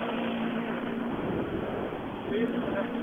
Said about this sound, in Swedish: han rullar fram med sin grönvita Skoda R5.